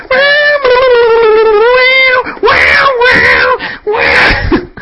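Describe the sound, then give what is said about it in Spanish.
A voice imitates an electric guitar solo, sustained wailing notes that bend and waver in pitch, then three loud, gritty bursts mimicking distorted riffs. “Yo cuando voy en el coche y pongo canciones así de, grupos que me gusta guitarreros y me pongo a simular el, el solo, ¿sabes?”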